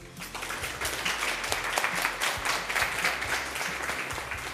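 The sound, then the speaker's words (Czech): A crowd of visitors applauds steadily in the café of the Museum of East Bohemia in Hradec Králové during a radio broadcast, many hands clapping in a dense, even patter at moderate loudness, with no voices rising above it. “Jak sami slyšíte z rozhlasových přijímačů, tak eh, návštěvníků je tu dost.”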